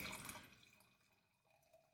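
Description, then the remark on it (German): Wine pours into a glass, a brief gurgling splash that is loudest at the start and tapers off into faint trickles and drips within a couple of seconds. “Ich schenke einfach mal ein”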